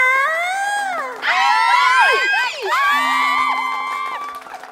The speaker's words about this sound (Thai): ว้าว เสียงกรี๊ดถล่มทลาย แฟนคลับหนาแน่นห้างแตกเลยนะคะเนี่ย